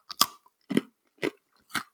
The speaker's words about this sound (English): I've got my little Herman's peanut brittle that I'm sitting here eating while we're doing this show.